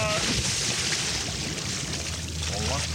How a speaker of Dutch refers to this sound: En dan gaan we om te beginnen gaan we aan de waterkant. De groot waterkantgeluiden.